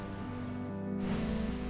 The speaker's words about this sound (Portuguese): A água turquesa, gentil, banha os pés. Faz espuma e rebenta acima do recife de corais e das pedras traz um tronco para repousar na areia.